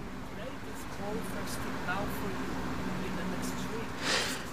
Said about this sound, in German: Ähm, das ist der Ventilator, der im Hintergrund äh, surrt. Anders ist es momentan nicht zu ertragen.